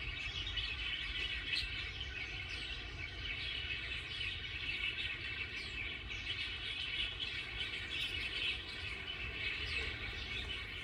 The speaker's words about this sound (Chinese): 呃，接下来给你听听看，这是一群鸟的叫声。那你猜猜看哦，看你能不能猜得出这是什么鸟的声音哦？是在什么样的场景底下而有的这个声音？